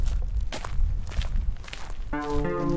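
Steady footsteps walk over a hard outdoor surface in an even rhythm toward the Millantor in St. Pauli and a brightly colored shower bus, with a low background rumble; near the end a sustained tonal hum, like music or a horn, rises beneath the steps.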